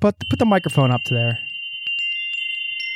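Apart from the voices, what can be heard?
wind chimes ringing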